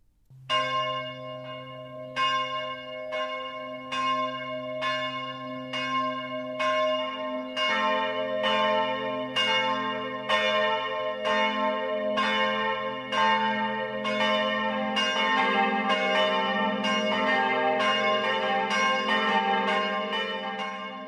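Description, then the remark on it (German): Church bells in Au am Inn, Upper Bavaria, ring the Sunday noon peal at 12 o'clock, loud overlapping strikes falling in a steady rhythm over a low humming drone, the sound growing fuller and denser toward the end. No voices. “Das Mittagsläuten kommt heute aus Au am Inn in Oberbayern.”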